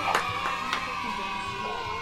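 A crowd cheers and claps for a norteño pop singer, a dense wash of applause with a few sharp whoops rising out of it, steady and loud throughout the short stretch.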